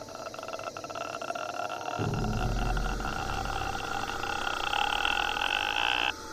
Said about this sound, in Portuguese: Ele quebrou o pescoço dela e quando quebrou, ela fez um barulho soltando o ar